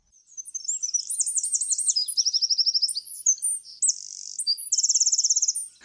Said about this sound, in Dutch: En dit is dezelfde vogel, maar dan iets hoger gemaakt met software.